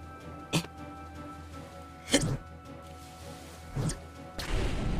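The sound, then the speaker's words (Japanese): Hand grenades thrown from Blackbeard's pirate ship explode in a spaced-out series: three sharp, punchy blasts a second or more apart, then a louder, sustained roaring burst that carries to the end, over a low steady background hum. “黒ひげてめえ時代交渉にのっとった戦い方をしなさいよ1718年に手榴弾は存在しないでしょうが”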